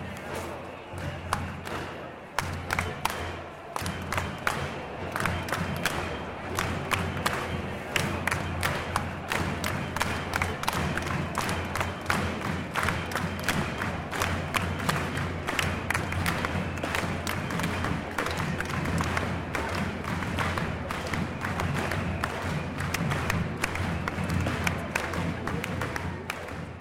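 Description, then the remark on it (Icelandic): A dense crowd chants and shouts continuously while drums pound in a steady, fast rhythm underneath, the whole mass of sound loud and unbroken throughout, echoing between the buildings of central London in a field recording. “Já, hann eru trommunar í fullum gangi og, og hérna, gaman að heyra bara hvað sko, massin er mikill, maður heyrir svona eitthvað dýft í upptökunni svo, hún er bæði nálat manni og mjög fjarrri en það glimur á milli húsana þannig miðborg London.”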